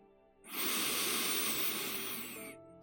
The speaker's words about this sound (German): Ja, du kannst die Augen gerne schließen, entspann deinen Körper, lass ihn ganz entspannt da sitzen oder da liegen und atme mit mir einfach ein paar Mal tief ein und aus. Tief ein